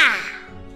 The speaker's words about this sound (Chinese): 两只非常大的黑色乌鸦，落到花园的栅栏上。他们饶有兴趣儿的看着这颗巨大的樱桃。一只乌鸦叫着：“哇哇！”另一只乌鸦盯着樱桃回答：“哇哇哇哇！”